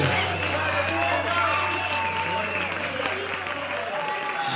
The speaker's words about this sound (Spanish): Fuerte el aplauso. Fuerte.